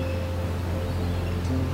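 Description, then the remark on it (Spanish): A steady, soft wash of ocean surf, continuous and even, with a low droning hum underneath and no voices. “ese mar que está dentro de ti y que ahora suena en parte.”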